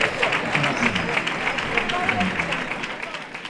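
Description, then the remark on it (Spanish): A crowd gives an ovation for the founder of Amigos de Gine de Trista, steady, dense overlapping claps filling the space for a few seconds, with a faint murmur of voices mixed underneath. “Bellos de punta, ovación para el fundador de Amigos de Gine de Trista”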